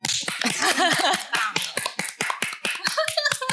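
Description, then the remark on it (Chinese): A short burst of applause sound effect: rapid, irregular sharp claps for a few seconds, with some brief cheering or whooping voices mixed in near the start. “说得太好了，掌声！”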